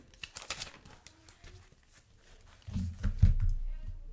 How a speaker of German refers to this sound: Ähm, ich muss eben meinen Stift aufmachen. So, also.